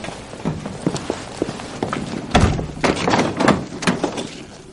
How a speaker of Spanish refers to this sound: Cierra la puerta y los tres entran en la abadía corriendo.